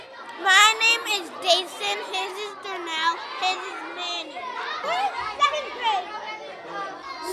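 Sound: children chattering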